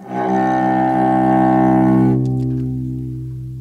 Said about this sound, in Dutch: Dit is het geluid van een cello, duidelijk een snaarinstrument. Je kan afleiden dat het gaat om een cello, want je hoort het timbre van het instrument. Je hoort eigenlijk de specifieke klankkleur van het instrument.